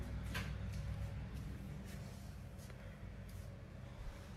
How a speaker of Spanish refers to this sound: Esa es el, la puerta del cuarto